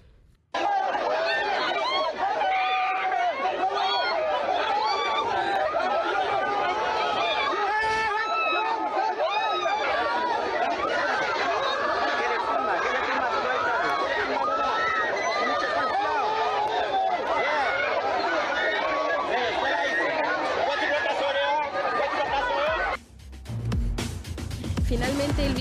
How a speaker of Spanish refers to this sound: Tras romper el cerco de la Guardia Nacional, los indocumentados se amotinaron, lo que dejó al menos 10 lesionados. Escucha.